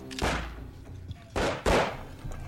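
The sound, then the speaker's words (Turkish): Three gunshots ring out with echoing tails as someone is shot: one single shot, then after a pause two more in quick succession, fairly loud and reverberant against a quiet background with no talking. “İşte şimdi vurdular”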